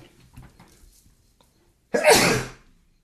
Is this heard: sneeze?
yes